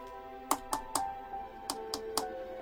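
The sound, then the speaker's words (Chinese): Two quick sets of three light knocks on the outside of a door, evenly spaced, with a short pause between the groups, over a soft, steady musical hum. No voices. “这时候，门外传来了很轻的敲门声。”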